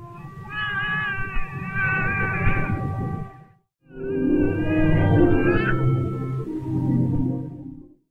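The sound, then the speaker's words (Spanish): A baby wails in two long, loud bursts separated by a short pause, its cries rising and wavering over sustained orchestral film music that swells beneath them and follows the cries, which hit notes almost identical to the music. “Escuchen con atención cómo la música va a obedecer a los llantos del niño.”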